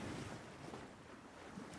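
Steady ocean surf washes in a continuous low roar, with soft wind noise blending into the rushing water. No voices are present, just the constant wash of waves.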